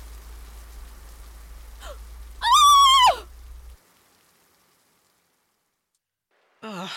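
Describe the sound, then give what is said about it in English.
Steady rain hisses for a few seconds, interrupted by a loud, wavering call, then cuts off abruptly into silence before a brief sound at the very end. “rain now? hopefully, it'll clear up by morning.”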